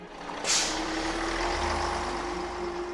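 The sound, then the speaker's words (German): A large bus idles with a low engine rumble, then a sharp hiss of air brakes bursts out near the start, fading into a steady drone and faint whine. “Ich nahm den Bus.”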